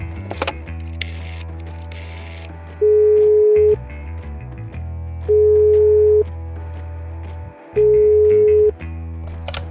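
A telephone in a kitchen being dialed, with a quick burst of mechanical clicking and whirring, followed by three evenly spaced ringing tones, each lasting about a second, over a steady low background hum, as a call is placed to the Musikhaus Treppendorf music shop.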